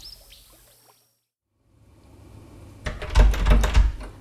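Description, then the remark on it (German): Someone rattles and tugs at a locked door at the entrance of a paper factory: a brief quiet, then a burst of loud clattering and thumping as the handle and door shake without opening. “Och Mann, Türen sind verschlossen.”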